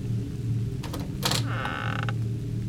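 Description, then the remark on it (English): The wooden door of a small house creaks slowly open with a drawn-out, groaning squeal and a brief rattling scrape midway, moderately loud, with no voices. “They reached the house and when they opened the door, they found an elderly lady lying on the floor.”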